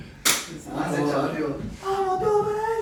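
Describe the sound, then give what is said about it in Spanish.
A voice imitates a punch landing, opening with a sharp, loud smack followed by a breathy, rumbling vocal burst that trails into a drawn-out hum, all unaccompanied. “Yo la, estoy escuchando, esta piña, que suena... Así tipo.”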